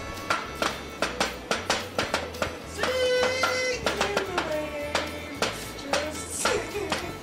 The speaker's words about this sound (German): Gefallen dir meine neuen Schuhe? Sind aus Glas? Soll ich dir was, ja, Soll ich dir was vorsteppen? Warte mal.